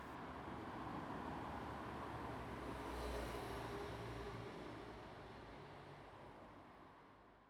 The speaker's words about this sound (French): les bruits de bagnole derrière les doubles vitrages